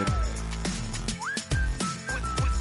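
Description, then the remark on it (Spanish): A whistled melody with a quick upward slide and a few held notes rides over rhythmic music with a steady thumping beat and bass, with no one talking. “silbar su, su silbido.”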